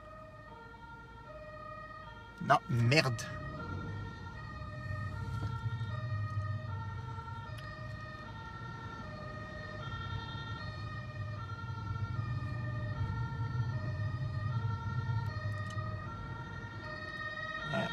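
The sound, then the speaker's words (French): A fire engine siren wails steadily with stacked harmonic tones over a low engine rumble, loud as it passes across the street, after a brief sharp bang; a voice mutters briefly. “Voilà, j'ai fait mon travail citoyen. Les pompiers sont passés.”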